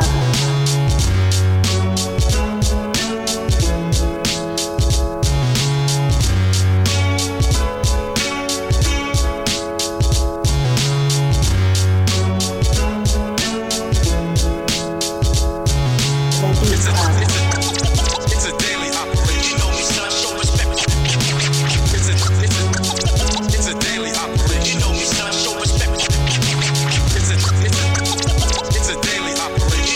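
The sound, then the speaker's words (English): A hip-hop instrumental beat submitted by a producer, plays loud and steady with no vocals, built on a heavy repeating bass pattern; around the midpoint the arrangement grows fuller and brighter. “…, y'all submitted a beat called ….”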